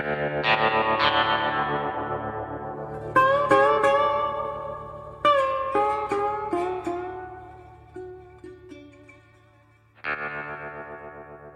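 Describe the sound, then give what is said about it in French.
A short musical jingle introducing a travel-advice segment, with heavily processed, distorted tones and chorus-like shimmer, a run of bright struck notes ringing out and decaying, then a final swell. No voices, loud and up front. “on va vous laisser avec le sonal du conseil de voyage”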